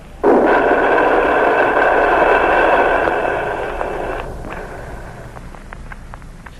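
A toilet flush, used as a sound effect in a 1938 radio drama broadcast: a sudden loud rush of water that roars steadily for a few seconds, then tapers into quieter trickling with a few faint clicks.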